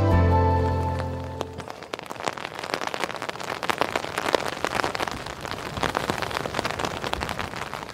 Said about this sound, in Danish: Øh, vi står i regnvejr på øh, Mols Laboratoriets arealer. Det er øh, marine forland.